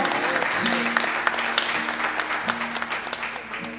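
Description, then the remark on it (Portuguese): An audience at a church service breaks into steady, dense applause in praise of God, many hands clapping together in a continuous rush, with a faint sustained tone and some voices mixed underneath. “Dê uma salva de palmas dele porque ele é bom.”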